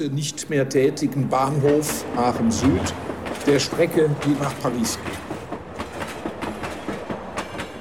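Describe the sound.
A train rolls along railway tracks with a steady, rhythmic clickety-clack while a man speaks over it for the first few seconds.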